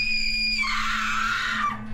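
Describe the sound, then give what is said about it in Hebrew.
A woman, the speaker's sister, lets out a loud, piercing scream that rises sharply and holds for over a second before trailing off, with no speech. “בדיוק עמדתי לפתוח אותו כשאחותי צרחה.”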